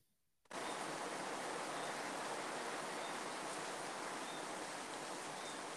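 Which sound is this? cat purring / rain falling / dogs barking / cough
rain falling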